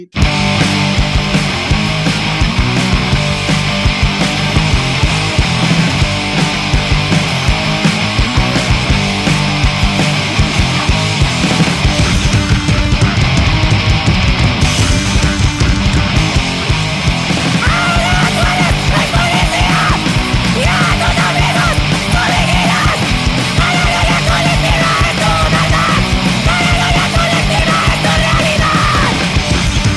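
A loud, dense heavy rock song plays throughout, with shouted vocals over thick distorted guitars and pounding drums at a steady, driving intensity and no talking over it.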